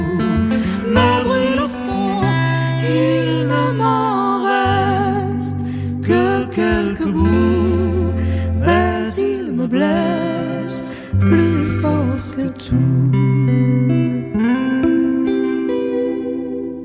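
A French chanson performed live, with a singer's vibrato-laden voice over steady bass and full instrumental backing. The music is close, loud and continuous, with a slight reverberant studio sheen.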